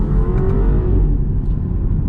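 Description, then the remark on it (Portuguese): A sport-package car engine accelerates with a loud, steady low rumble and rising drone, heard on its own for a couple of seconds with no voices. “Então você consegue ter uma boa aceleração em baixa. O câmbio tem uma resposta muito rápida.”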